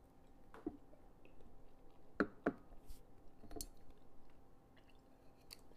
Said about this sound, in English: I'm taking another sip.